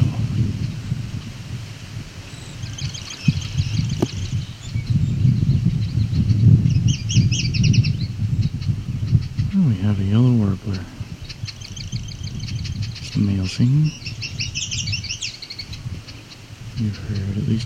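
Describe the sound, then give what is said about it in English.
A yellow warbler sings several short, high, sweet phrases in repeated bursts, the song varying slightly between phrases, over steady outdoor background noise and some low voice sounds. “Is there a yellow warbler in here? It does appear to be so.”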